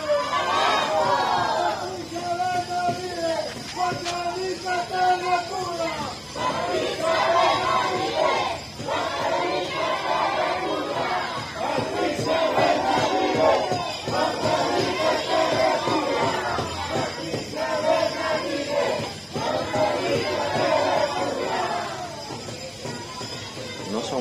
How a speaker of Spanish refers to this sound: Ahí están, podemos apreciar a esta pequeña, este grupo de gente que está acordonada por la policía para que no se acerquen gritando fuerte, ¿ah?